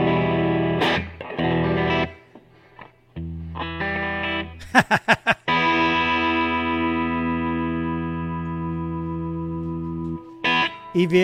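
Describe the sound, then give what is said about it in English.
Distorted electric guitar played through an Echoplex tape echo, with a sustained chord ringing out, repeating delayed taps, and a few choppy bursts, loud throughout. “That's the Echoplex.”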